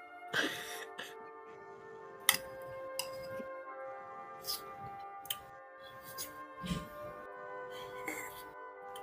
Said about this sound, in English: Stop suckling off of your spoon. Nobody wants to listen to you suckle.